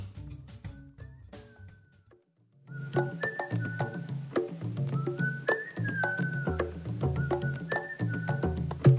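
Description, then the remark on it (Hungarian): A bright whistled melody carries the intro of an upbeat song over a bouncy bass and percussion groove, briefly dropping out for a short pause before the full arrangement returns. “Uh, csak minden csak azért kérdeztem, hogy a kitűnő … az belefér a mai uh, koncept műsorba.”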